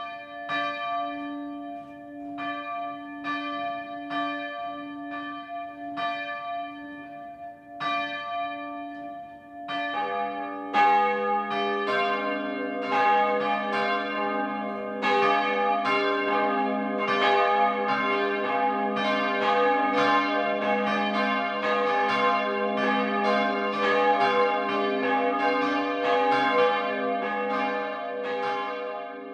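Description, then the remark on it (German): Church bells of the Catholic parish church St. Jakobus in Schirn, Upper Franconia, Germany, in the Kronach district, ring the 12 o'clock midday peal: a single bell tolls steadily at first, then more bells join around ten seconds in, building a dense, overlapping, continuous clangor with no voices. “Das Mittagsläuten kommt heute von der katholischen Pfarrkirche St. Jakobus im oberfränkischen Schirn.”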